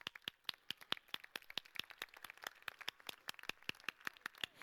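Audience applause at a murga contest: a steady, fairly quiet patter of many sharp, crisp hand claps overlapping in an uneven rhythm throughout, with no voices.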